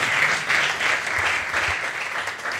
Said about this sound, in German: Das verdient einen Applaus auf jeden Fall.